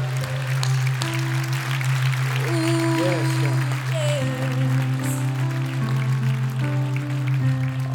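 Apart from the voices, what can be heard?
audience applauding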